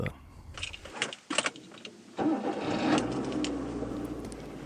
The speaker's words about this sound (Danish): Jeg har sat mig ind i en bil